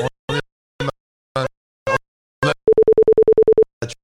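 After a dropped call, a mid-pitched phone tone pulses rapidly, about a dozen short, even beeps in one second, clear and fairly loud, with people talking before and right after it.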